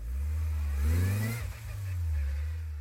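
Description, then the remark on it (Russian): A car engine hums steadily as the car drives off in St. Petersburg in late August, in warm weather of about 25 degrees, its pitch rising and falling as it accelerates and shifts, with a brief dip midway before the engine picks up again; no one speaks. “Вот, так что пристегивайтесь и полетели.”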